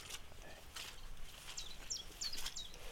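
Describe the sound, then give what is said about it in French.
A common chiffchaff sings faintly, a short series of high, evenly spaced chiff-chaff notes over a soft outdoor background hiss with some light rustling. “Alors, il y a le Pouillot Vélos en ce moment qui chante.”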